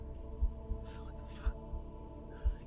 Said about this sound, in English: No, it's very hard to breathe. You're hot heartbeat is pulsing in your ears.